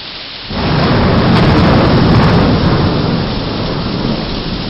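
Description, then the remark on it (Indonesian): A loud thunderclap from a lightning strike bursts in after a brief rain-like hiss, then rolls into a heavy, sustained rumble that slowly eases while rain continues underneath. No one speaks. “Dari suaranya petir tadi pasti telah menyambar sesuatu.”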